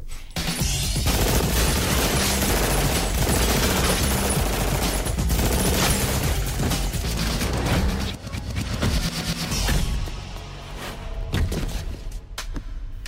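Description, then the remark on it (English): Loud, relentless gunfire from a movie's lobby shootout scene in which the police on the bottom floor are shot: rapid bursts of automatic weapons fire overlapping with heavy booms and thuds, a dense chaotic barrage that barely lets up, easing slightly toward the end. No one speaks. “After they blow away all the police on the bottom floor”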